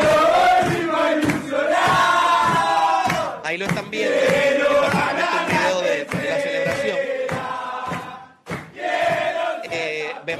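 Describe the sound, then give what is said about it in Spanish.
A loud group of men, the Argentina team, sings and chants together in a rowdy celebration after their victory against Mexico, voices layered with rhythmic claps or stomps, sustained for the whole stretch with a brief dip near the end. “Y ahí entonces se ve la celebración del equipo de Argentina tras la victoria contra México. Ahí ustedes están escuchando cantar.”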